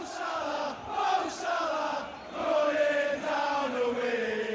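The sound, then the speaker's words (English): A large stadium crowd of Liverpool football fans chants and cheers in unison, a dense roar of many voices rising and falling in a sung rhythm, loud and continuous throughout. “the cheers of the fans of Liverpool, they will make you stand up and applaud.”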